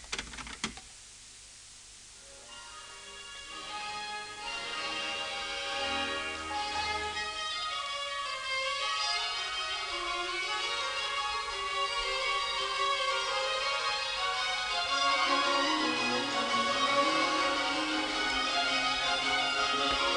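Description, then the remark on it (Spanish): A fast baroque orchestral overture in fugato style, busy interlocking lines of strings and continuo running at a brisk, steady pace after a short pause, fairly loud and continuous with no voices. “Precisamente la abertura de la número 4, después de la parte, según el esquema de la abertura la francesa, punteada, enérgica, un poco más lenta, llega el momento fugato, que suena así.”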